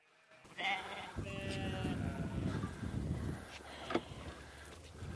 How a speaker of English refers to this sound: So I got to ask, am I hearing the crunch of corn? Yes. Wow. Can you take that in? So I don't, as a general rule, I don't feed my sheep any grain.